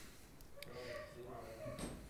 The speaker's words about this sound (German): ich mache jetzt mal eben das Fenster zu